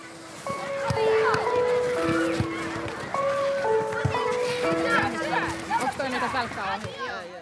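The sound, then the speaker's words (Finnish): A voice shouting at full volume into an empty soda can, coming out as a hollow, metallic, buzzing drone that holds and jumps between pitches, loud, over faint background chatter. “Jos mietit, että mitä tuo ölinä on, niin tollanen ääni tulee, kun huutaa ihan täysillä tyhjään limutölkkiin.”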